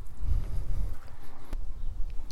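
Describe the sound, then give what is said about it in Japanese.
Muffled footsteps crunch along outdoors at a walking pace, picked up by a microphone held in front of the speaker's face, one sharper step standing out midway, over a steady low rumble of wind buffeting the microphone. No one speaks. “あ思ったよりはなんかわざと音立てなくてもこの顔の前にマイク持ってる状態で、まあ、今も足音とか聞こえてるよね聞いてる人はわかると思うけど”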